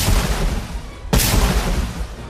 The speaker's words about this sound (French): Le combat fait rage avec une violence inouïe. C'est une pluie de métal, un orage de poudre, un tonnerre de feu. 120 000 coups de canon sont tirés.